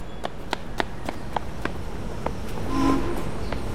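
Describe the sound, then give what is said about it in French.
Quick running footsteps of a girl running down a hill patter in a steady rhythm, about a dozen light thuds over a soft outdoor background hiss, with a brief whooshing swell near the end. “Merci crie-t-elle en dévalant la colline.”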